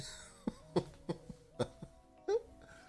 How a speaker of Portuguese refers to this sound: Ai, até desliguei aqui o microfone pra tossir.